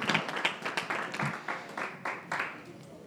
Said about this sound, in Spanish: Demos un aplauso al Señor y pueden tomar sus asientos.